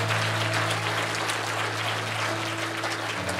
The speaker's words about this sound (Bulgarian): О, ако ръкопляскаш, ръкопляскай, като че го искаш и го вярваш.